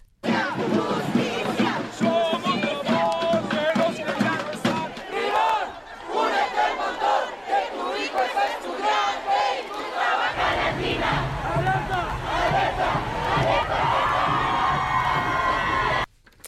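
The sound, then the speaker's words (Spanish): A large crowd of 30,000 to 40,000 young people marching through the main streets of the city of Puebla, demanding justice, chants and shouts in unison, loud and sustained, with rhythmic voices filling an outdoor street space and a low rumble joining in partway through. “Este jueves, entre 30 y 40 mil jóvenes realizaron una marcha por las principales calles de la ciudad de Puebla para exigir justicia por el asesinato de tres universitarios y un conductor de Uber en el municipio de Huejotzingo.”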